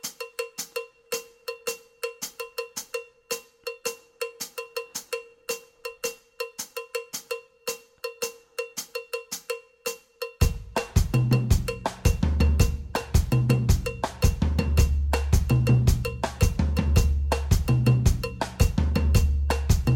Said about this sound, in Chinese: 那我们可以听听看，就是另外一个呃，让大家听听看这个所谓的 bembe 的节奏是长像这样子的。